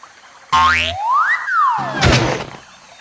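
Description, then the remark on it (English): A springy cartoon boing as Kangaroo makes an enormous bounce across a river to land beside Lion and Tiger: a twangy tone swoops up and then slides back down, followed by a bright rattling landing burst. Loud, lasting about two seconds, with no voices. “Kangaroo laughed and, with an enormous bounce, landed beside Lion and Tiger.”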